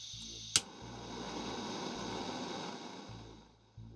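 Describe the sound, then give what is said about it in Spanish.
A single sharp click of a butane torch igniting, followed by a steady roaring hiss of flame that holds for a few seconds before cutting off. The torch is used for dabbing cannabis concentrates. Fairly loud, with no voices. “No basta con un mero encendedor. Es necesario un soplete.”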